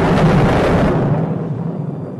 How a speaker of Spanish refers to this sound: De pronto, se escuchó un trueno en el cielo de la bóveda de iglesia y cayó una viga desde lo más alto